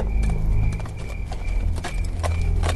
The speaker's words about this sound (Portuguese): Pequenas árvores e poças de água espalhadas podiam ser vistas e constantemente o cavalo no qual estava montando pisava em alguma dessas poças, cambaleando levemente e mantendo o guerreiro atento.